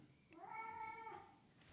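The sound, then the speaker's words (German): A single drawn-out meow from a male cat, clear, rising and holding for about a second before trailing off, with no talking over it. “So, und jetzt kommt mein, mein Kater rein und erzählt auch noch ein bisschen mit, aber das soll uns nicht stören.”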